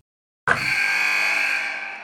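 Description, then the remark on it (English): A game-ending buzzer blares after a moment of silence: one loud, harsh, sustained horn tone that starts abruptly, holds steady for about a second and a half, then fades slightly, with no voices. “you sent the game-winning email at the buzzer, avoiding a 4:55 meeting on everyone's calendar.”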